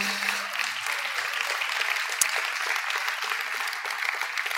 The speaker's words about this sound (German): Wer von euch ist alles mit dem Bibelleseplan von der GVC Fraufeld unterwegs? Mega cool, oder? Wir geben doch mal einen großen Applaus, die, die das machen, auch jetzt elektronisch aufbereitet.